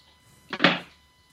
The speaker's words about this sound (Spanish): Sí, sí conecté mi celular a, la toma eléctrica.